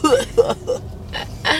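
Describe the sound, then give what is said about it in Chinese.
A few short voiced bursts are followed by two harsh, breathy coughs in quick succession, moderately loud, with no clear words spoken. “等一下，等一下，等一下， 可以用我的咳嗽打败。”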